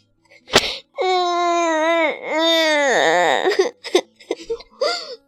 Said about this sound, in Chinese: 好了好了好了，不哭了不哭了，伤心了是吧？哎呦，好了好了，别哭了别哭了。真哭了。